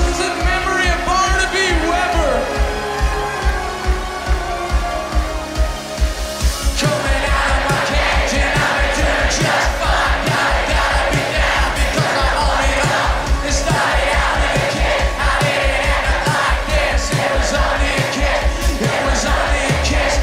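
A live rock performance with a steady, driving drum beat and a festival crowd yelling along; the band opens lighter, then the full, loud sound crashes in after several seconds.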